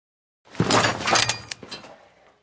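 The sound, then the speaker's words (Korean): A heavy metallic clank of a shackle being fastened around an ankle snaps shut with a jangling rattle, then rings and fades over about two seconds, fairly loud with no voices. “철커덩 묵직한 새소리가 났다.”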